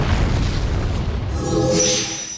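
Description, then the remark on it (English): A giant black ball of energy crashes into the ground, leaving a huge hole: a loud, sustained crashing explosion with a deep rumbling boom, crackling debris and a rising hiss toward the end. “A giant black ball of energy came crashing toward Rexy and Velociraptor as quick as lightning.”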